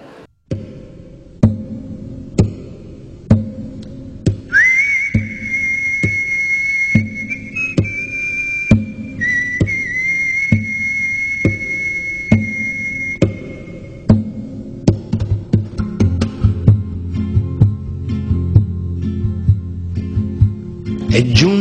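A song intro opens on a steady, evenly spaced beat and low bass, then a clear whistled melody floats over it before the fuller band swells in toward the end.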